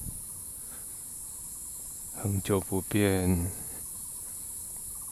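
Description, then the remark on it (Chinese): Cicadas drone in a continuous, high-pitched buzz that stays steady from start to finish, while a person speaks briefly over it partway through. “你可以开始欣赏路灯、蝉鸣”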